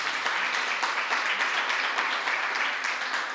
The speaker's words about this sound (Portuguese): Você recebe essa palavra? Então dê um forte aplauso ao Senhor, pois Ele é digno.